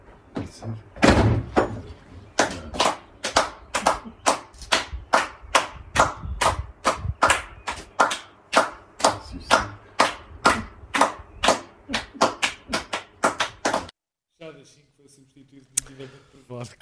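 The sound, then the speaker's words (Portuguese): Slow, steady clapping from Prince Charles and Camilla at their doorstep outdoors in support of British National Health Service workers, crisp, keeping an even beat for about fourteen seconds before stopping, followed by a brief murmur of voices. “Há dias, o Charles e a Camila vieram à porta dar força aos trabalhadores do Serviço Nacional de Saúde Britânico.”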